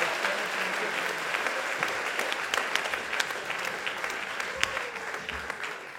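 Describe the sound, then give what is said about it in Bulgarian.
Steady, dense audience applause at a comedy roast fills the whole stretch, many hands clapping at once with sharp individual claps poking through the wash, fairly loud and sustained without a break. “Хора, дайте ни аплодисменти за първия ростен таз!”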